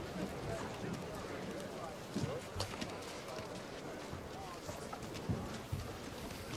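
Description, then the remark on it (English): Horse hooves clip-clop irregularly over a steady, noisy outdoor background as a stallion is brought back after being recaptured, a handful of distinct knocks spread across the stretch, with a murmur of voices underneath. “This is the horse that hurt your boy. We collected him and we brung him back.”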